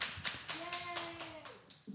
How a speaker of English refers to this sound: and the roaring round of applause here from the, the Peanut Gallery, which is the, uh, the Moonshine Women over here.